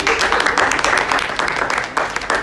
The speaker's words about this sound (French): on applaudit.